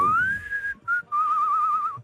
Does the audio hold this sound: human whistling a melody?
yes